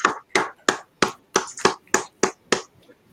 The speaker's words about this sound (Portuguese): Aplausos a Luan. Aplausos a Luan.